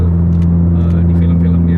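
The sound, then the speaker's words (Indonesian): A loud futuristic car engine, like the Robocop car speeding in a chase in the film Robocop, drones with a steady low humming tone as if accelerating, holding constant for under two seconds with faint hiss above. “Itu Robocop kalau lagi dia ngebut ngejar, kan dia punya mobil Robocop tuh. Iya. Itu bunyinya.”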